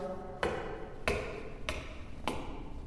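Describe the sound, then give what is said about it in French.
Four footsteps climb a staircase at a slow, even pace, each landing as a sharp knock with a faint thud beneath. No one speaks. “Ça fait six mois que je monte ces escaliers.”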